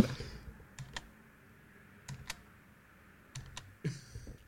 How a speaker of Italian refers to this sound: lei che digita.